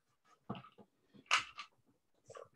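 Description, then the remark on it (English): Many different dice rattle and clatter inside a container in several short bursts separated by brief pauses, with one louder shake in the middle. “So you can hear all the dice moving around in there.”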